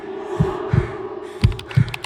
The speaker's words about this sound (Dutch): Ik lig op mijn bed mijn warm kersenpitkussentje op mijn borst tegen de druk. Begin een mail te typen.